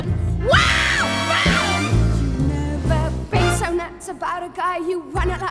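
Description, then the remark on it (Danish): A loud song reaches its peak, a female voice belting and screaming high, sliding notes over a full band with driving bass and cymbals, sustained and intense throughout. “Sangen, den eksploderer jo i virkeligheden, og hun skriger.”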